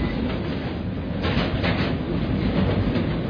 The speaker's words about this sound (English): It remembers me of Paris when I'm walking in, in, on the street in Paris and the, the metro passing by underneath me.